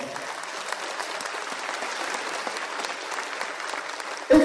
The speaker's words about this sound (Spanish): Un aplauso para ustedes, vamos.